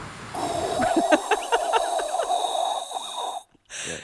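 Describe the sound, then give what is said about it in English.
A person imitates wind blowing into a microphone with their mouth: a loud, breathy whoosh with a hollow whistling tone and a series of quick puffs, cutting out briefly near the end. “I've spent my entire life keeping wind out of microphones.”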